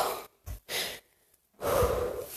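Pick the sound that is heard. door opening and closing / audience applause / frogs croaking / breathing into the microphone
breathing into the microphone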